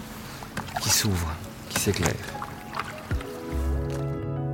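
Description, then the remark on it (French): Oars dip and splash into calm lake water in a few unhurried strokes before sunrise, rowing toward the moon's reflection, while a man talks quietly over them. “Le seul bruit que vous entendez, c'est nos rames.”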